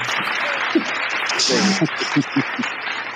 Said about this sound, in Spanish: Me he escuchado mucha gente, pero esos aplausos de... Este ah, ahí vienen con más fuerza.